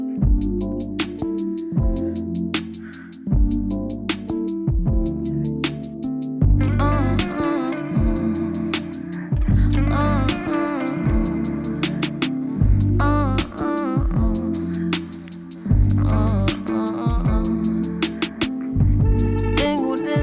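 A full song plays loud and steady, a pulsing bass pattern repeating under bright instruments, with a voice singing in Spanish joining after a brief instrumental opening and carrying through to the end.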